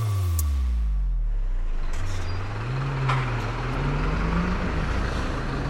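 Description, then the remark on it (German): Busy city street traffic in a train station district, on Taunusstraße, heard while walking to work before nine: heavy vehicles rumbling, an engine droning and shifting pitch, and a brief hiss like an air brake. Steady and fairly loud, with no talking. “Gerade äh, live on tape quasi aus dem Bahnhofsviertel, denn ich laufe hier gerade zur Arbeit.”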